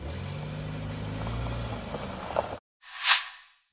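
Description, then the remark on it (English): A low, steady car engine rumbles for a couple of seconds, cuts off, then another vehicle sweeps past with a rising and fading whoosh, as multiple cars full of federal agents in bulletproof vests arrive. “Okay, so you see there multiple cars full of federal agents and bulletproof vests, uh, their weapons out.”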